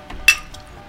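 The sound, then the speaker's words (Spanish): A single bright clink of glasses touching in a toast, ringing briefly, with a couple of softer taps around it and no voices. “Gracias a Tomir y eh, salud por eso.”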